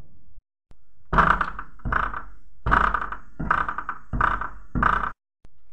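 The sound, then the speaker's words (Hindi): Six heavy, booming thuds pound against a door in a steady, forceful rhythm, each hit loud with a short rattling resonance, and nothing else audible between the blows. “उस दरवाजे पर उसे ज़ोर ज़ोर से खींचने की आवाज़ आ रही थी जैसे वो दैत्य इस दरवाजे को तोड़ना चाह रहा हो”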